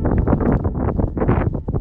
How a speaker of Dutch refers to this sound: Het is hier doodstil. Behalve de wind.